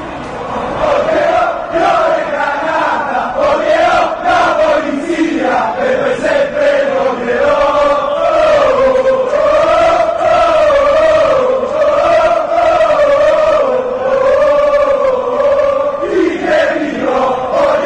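A large crowd of Juventus football fans chants in unison, taunting rivals Torino and Fiorentina. The loud, sustained melodic chant rises and falls in pitch and carries on steadily for the whole stretch, with no separate speech.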